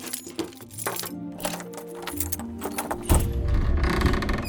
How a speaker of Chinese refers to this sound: 米卡的胆子越来越大了，他甚至鼓起勇气，自己掏出钥匙打开了房门，却又被吓得跳了起来。